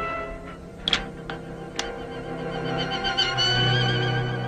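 Horses carrying a group of armed men into a ravine neigh with drawn-out, wavering whinnies, punctuated by a few sharp hoof clops, steady in loudness, with no one speaking.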